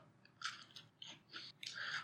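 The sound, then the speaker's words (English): Crunching of a crisp vanilla cream sandwich cookie being bitten and chewed in a taste test, several sharp, crackly bursts in an uneven rhythm with no talking. “I'm getting a lot of vanilla, a lot of crunch, not a lot of cream, and zero Oreo.”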